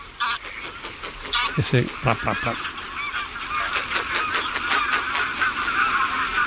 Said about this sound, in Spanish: Lo mismo sucede con el matraqueo que emiten los gansos, los ánsares comunes al despegar.